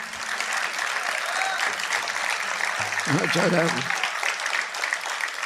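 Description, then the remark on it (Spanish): Steady applause from a sizable crowd fills the whole stretch, and about midway a single audience member lets out a short, high shout that rises briefly above the clapping. “Ahora que escuché eh, ese, un gritito”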